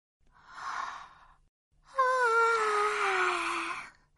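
A big, drawn-out yawn: a breathy intake, then a long voiced exhale that slides gradually downward in pitch before trailing off. No one speaks.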